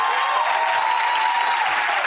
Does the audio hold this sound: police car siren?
no